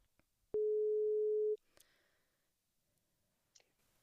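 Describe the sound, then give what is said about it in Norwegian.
A single loud ringing tone on a phone call, a steady one-second beep, followed by faint clicks and a quiet line while waiting for an answer. “Eh, så jeg tok rett og slett og ringte den, i.”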